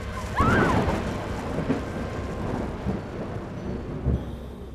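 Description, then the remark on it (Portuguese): Thunder bursts in loud, then rolls on as a long, low rumble that slowly fades beneath a steady hiss like rain, with a brief high-pitched cry at its onset. “As três mulheres se jogaram nas fogueiras e os seus gritos ecoaram junto com os trovões.”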